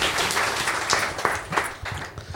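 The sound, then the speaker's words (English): A short burst of applause: many hands clapping in a dense, steady crackle, fairly loud, holding at an even level throughout with no voices standing out. “Oh, give him a round of applause.”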